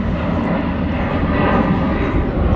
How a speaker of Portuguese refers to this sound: Ó, gente, tem um avião passando, tá bom?